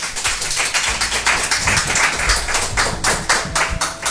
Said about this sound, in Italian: Applauso, applauso, ci sta.